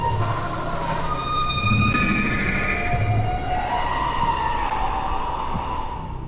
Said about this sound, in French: Un bruit strident et horrible retentit dans toute la forêt.